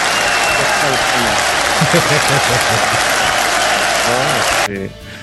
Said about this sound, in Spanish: Es que Siempre tan, tan fiel a nosotros, la neta. te, mereces una pinche ovación. Me diría mi, mi queridísimo …, aplausos.